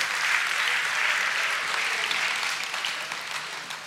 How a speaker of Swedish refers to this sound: Wow! Kom igen, det var bra. Det var värt en applåd tycker jag.